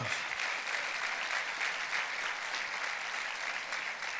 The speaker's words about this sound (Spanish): Dale un aplauso a ese Dios.